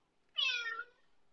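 A single short meow from Kitty, a kitten, a bright harmonic cry lasting about half a second, rising then trailing off, with no talking.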